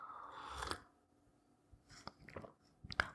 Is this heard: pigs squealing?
no